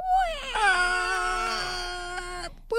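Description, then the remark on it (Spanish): A voice imitates a car screeching as the handbrake is yanked: one drawn-out, high, whining tone that dips in pitch, then holds steady for about two seconds before cutting off abruptly, fairly loud. “No me dio chance y agarra el freno de mano y oh. me lo jala y nada más se escuchó el pobre carro que lloró así como que”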